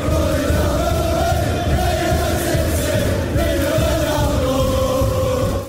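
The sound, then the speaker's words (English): A huge football stadium crowd at Old Trafford roars and cheers after what could be a winning goal for United, a loud, sustained wall of voices with swelling chant-like tones that holds steady for several seconds. “Oh my goodness, well, again, just listen to that crowd.”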